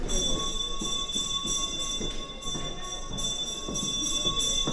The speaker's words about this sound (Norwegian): Nå ringer bjellen. Det betyr at nå må ikke folk somle mer i foajeen, men finne plassene sine. For nå starter forestillingen hvert øyeblikk.